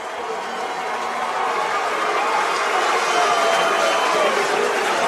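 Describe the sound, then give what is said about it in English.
A stadium crowd at a football game roars and cheers after Alex Anschutz's hard hit on punt coverage knocks the ball loose, in a dense, steady wash of noise that holds for about five seconds, swelling slightly louder toward the end, with no single voice standing out. “I have well, I'll let the crowd speak for that.”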